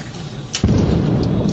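A burning bus on Avenida Rebouças explodes with a sudden, loud blast that erupts into a heavy, sustained roaring rumble, with no voices.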